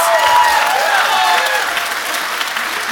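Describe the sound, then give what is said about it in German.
A large audience at a live Radio Nukular show stands up and applauds loudly and continuously, giving the biggest applause of the evening to a man on stage, with whistles, cheering and shouting voices rising above the dense, steady wash of clapping for the whole stretch. “Ein Mann, der natürlich nicht vergessen werden darf und der den größten Applaus des Abends erhält. Die Leute stehen auf, jubeln und schreien.”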